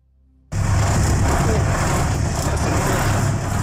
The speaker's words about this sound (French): votre cabine, elle est collée à la salle des moteurs. Oh, je pense qu'elle est au-dessus de la salle des moteurs